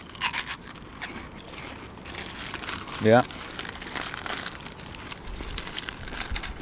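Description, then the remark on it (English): Steady crinkling of a Monster Munch snack packet and crunchy munching of the crisps run through the whole stretch, with one short spoken word from a person partway through. “This is the munch. That's the munch.”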